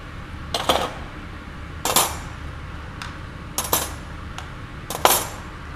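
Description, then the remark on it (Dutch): Metal cutlery clinks as pieces are dropped into a dishwasher cutlery basket, several bright jangling impacts in irregular bursts, with no one talking. “Ik doe mijn bestekje in, klaar.”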